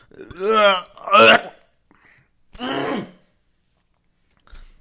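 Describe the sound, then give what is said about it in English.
A strange, throaty cough comes in three rough, voiced bursts, the first two back to back and a third after a short pause, followed by a faint click. “Ah, that was a weird cough.”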